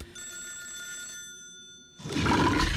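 A telephone in a film scene rings with a steady, shrill electronic trill for a couple of seconds, then is abruptly cut off by a loud, rushing burst of noise.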